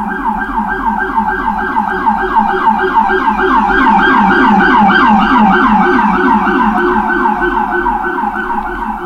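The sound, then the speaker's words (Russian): A loud emergency siren wails in a rapid, warbling yelp for the whole stretch, swelling and then easing off slightly at the end as the vehicle passes down a street in New York. “О, звуки Нью-Йорка.”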